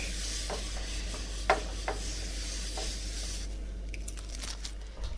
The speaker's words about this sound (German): So, die Pfanne immer mal durchwischend.